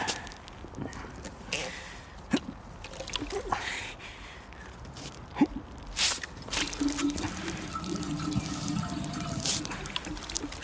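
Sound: man urinating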